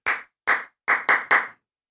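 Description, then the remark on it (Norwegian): Five crisp handclaps in a short rhythmic pattern: two evenly spaced claps followed by three quicker ones, clear and loud with no talking. The rhythm is clapped for a class to imitate, a method used in schools to get attention and focus. “jeg først klapper den rytmen”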